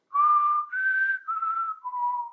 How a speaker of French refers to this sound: Du coup, je propose que avant le générique, ce soit moi qui fasse le sifflement, puisqu'on a décrété que c'était moi qui le faisais le mieux.